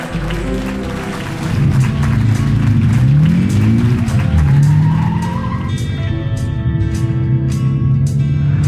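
A car races by at speed, its engine roaring steadily while tires squeal in rising, sweeping screeches, followed by sharp rhythmic ticking toward the end; loud, with no talking.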